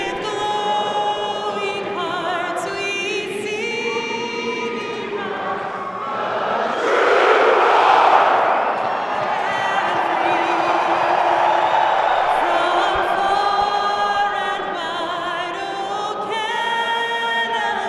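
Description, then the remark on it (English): A large arena crowd of Jets hockey fans roars and cheers continuously during a whiteout at a game, with whoops and shouted voices layered over a dense wash of noise that swells louder midway before settling into a sustained, steady roar. “I think it's safe to say there's going to be thousands with ear to ear grins on their faces, maybe with masks, but they'll be smiling for the first Jets game with fans in 18 months and with those fans a sound we haven't heard in a long, long time.”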